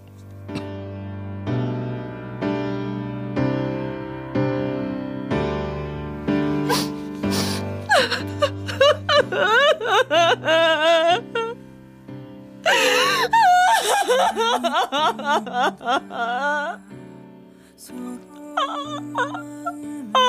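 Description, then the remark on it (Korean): A woman cries and sobs loudly, her voice wavering in long wailing moans broken by gasping breaths, over a steady low musical tone at the start. “그냥 울어 참지 말고 울라고.”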